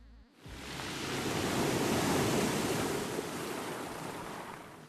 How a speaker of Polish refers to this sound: Fala? Fala, tak. Walnęła łapą i fala poszła i była woda. E, tak zwany splash.